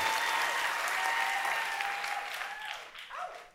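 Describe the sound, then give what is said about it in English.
An audience votes by applause on whether Robert De Niro is sexy: a dense steady wash of clapping that holds for a few seconds, then thins and tapers off with some scattered claps and faint voices at the end. “Yours was definitely louder than mine.”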